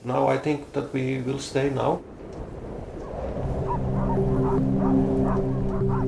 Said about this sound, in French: la soixantaine de chiens de la Basecamp Trapper Station sent la pression monter